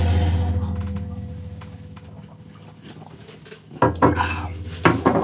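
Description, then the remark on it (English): Shot glasses clink sharply in a toast before drinking a shot, one bright clatter followed by a second about a second later, over a low steady hum with no talking. “Alrighty, let's get this shot over with so we can uh, get the ball rolling again. Okay. Let's go. Quest, Cheers.”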